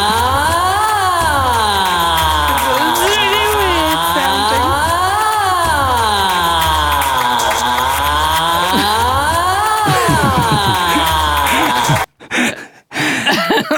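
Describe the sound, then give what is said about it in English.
A loud, buzzy processed tone, a recorded R sound reversed and folded, wails up and down like a police siren, sweeping through about five slow rises and falls before cutting off abruptly with a couple of brief stutters. “So it kind of, when I reversed it and then folded it, it kind of sounded a little bit like a siren almost.”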